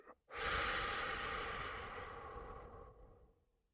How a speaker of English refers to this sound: So let's take a deep breath. Let it out.